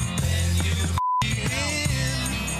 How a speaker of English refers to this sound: All right, so now that I've pointed it out, I'm going to place the beep where it's at. So now you know where it's at.